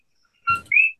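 A coqui frog about the size of a quarter gives one loud two-note call: a short lower whistle followed by a higher, upward-sliding note, sharp and piercing against an otherwise quiet background.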